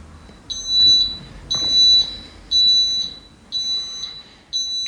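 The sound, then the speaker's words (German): Electronic item-finder receiver beeping in a steady repeating pattern: five bursts of rapid high-pitched chirps, each about half a second long, evenly spaced roughly one second apart, loud with no talking. “Der Empfänger gibt ein entsprechendes Piepsgeräusch von sich”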